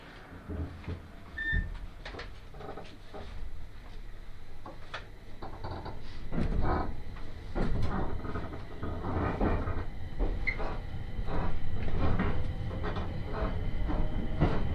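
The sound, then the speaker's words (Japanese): A train rumbles and clanks as it starts to depart after its doors close, with metallic knocks and creaks over a steady low roar that grows slightly louder. No voices. “お待たせいたしましたまもなく発車いたします閉まるドアにご注意ください”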